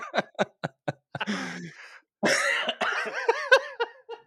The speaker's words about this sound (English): Don't make me cough.